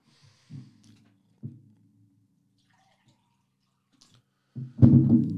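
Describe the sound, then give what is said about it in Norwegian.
Water being poured and sipped: a few soft, low gurgles and drips, a quiet pause, then a louder splashy burst near the end, with no talking. “Um, jeg tar jo bare litt vann.”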